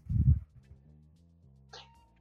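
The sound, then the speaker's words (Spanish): A dog outside in a plaza gives a single loud, low bark, followed by a faint humming drone and a brief higher yelp-like sound. No one speaks. “un segundo, voy a cerrar la ventana porque entre el perro culiado de la plaza y los bomberos.”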